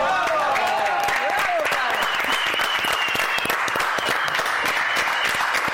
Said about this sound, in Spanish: bueno, venga, aplausos